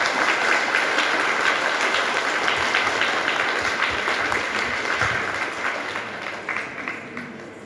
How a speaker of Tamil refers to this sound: அனைவருக்கும் வணக்கம் ஒரு கர ஒலியுடன் மீண்டும் நம்ம இளைஞர்கள் ஒரு உற்சாகமான வரவேற்புகிறோம்